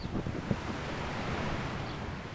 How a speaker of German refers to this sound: Es klingt irgendwie so, als wärst du da ganz alleine am Strand gewesen. Es liefen schon auch ein paar andere Leute am Strand entlang, ähm, aber es waren echt nur so vereinzelte. Und wir haben da eben jetzt auch gar keine Musik gehört, ne?